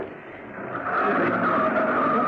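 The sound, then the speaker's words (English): A car engine starts up and pulls away, its revving growing louder over a couple of seconds with a squealing, tire-like whine, with no talking. “The starter's right there”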